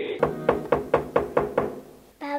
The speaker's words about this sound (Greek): Κάποιο χτυπάει την πόρτα.